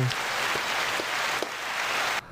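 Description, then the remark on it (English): A burst of applause: dense, steady, crackling clapping that holds at an even level for about two seconds, then cuts off abruptly. No one speaks over it. “Round of applause, man.”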